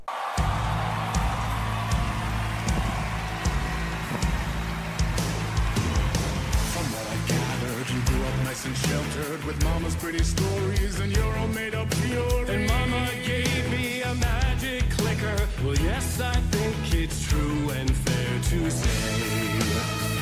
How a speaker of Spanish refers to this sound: os voy a dejar un pequeño fragmento de lo que es la canción